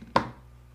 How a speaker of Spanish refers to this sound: No es cierto, güey, pero sí se me cayó el celular.